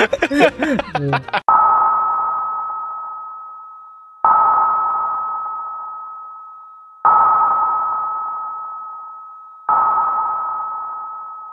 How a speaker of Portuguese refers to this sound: Eu acho legal o, a, a, pesquisa japonesa das Fossas Marianas. Que eles fazem pesquisa só com sonar. Ah, só bate e volta de som, né? Só com som.